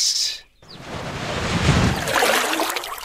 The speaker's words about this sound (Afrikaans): Papa hoor 'n harde plons in water.